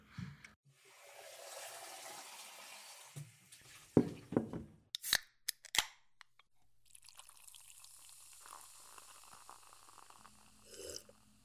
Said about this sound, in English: do you mind if we rinse that glass first?